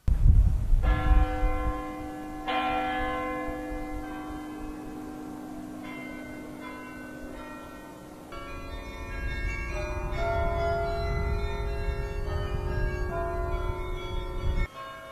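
Church bells of three churches in Amsterdam, which ring every 30 minutes, ring out in a steady sequence of strikes, each one leaving a long, shimmering harmonic hum that overlaps the next, with a low rumble of background noise underneath and no talking.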